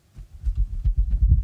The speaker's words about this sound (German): So, und ich mache das jetzt mal auf andere Hand, gleiche Größe ungefähr, ist eine Feder vom Mäusebussard. Und ich mache das jetzt mal ins Mikro, ich hoffe, das funktioniert. Also ich wedel jetzt damit.